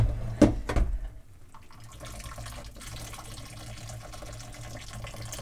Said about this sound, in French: vous penchez la casserole et puis vous enlevez toute l'eau.